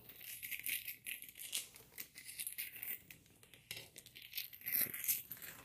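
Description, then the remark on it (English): Scissors snip repeatedly through crinkly packaging, with rustling and crackling between the cuts in an uneven, ongoing rhythm and no talking. “Let me just use scissors.”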